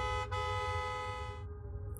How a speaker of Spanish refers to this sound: Mientras me bajaba, el camión seguía directamente detrás mío. Y esta persona seguía tocando la bocina y haciendo luces.